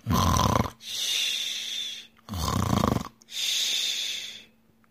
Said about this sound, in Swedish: När nu vargen hade tillfredsställt sin glupskhet lade han sig åter ner i bädden och började snarka helt överljut.